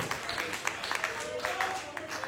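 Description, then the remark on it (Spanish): A church audience claps steadily and continuously as applause before the Lord, dense overlapping hand claps, with voices calling out underneath the applause. “un aplauso frente al Señor, anhelamos que Cristo venga.”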